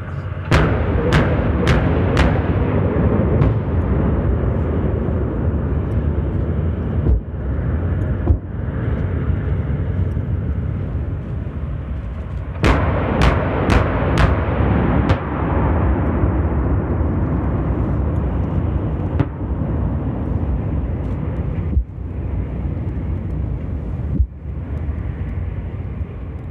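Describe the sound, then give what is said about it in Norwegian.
Rapid bursts of heavy naval gunfire crack out in quick clusters over a loud, constant roar of engines and wind, with a few isolated sharp shots between bursts, as the vessel KNM Gnist defends against an attack by two drones during the exercise Formidable Shield. “da har vi vært ute og øvd på et, eh, et angrep. Eh, her i form av to droner som eh, kom, som vi bekjempa.”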